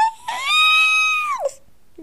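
A single high-pitched, sustained, hysterical scream of excitement from a female book fan rises sharply and holds for about a second before dropping off, loud, with no other sounds around it.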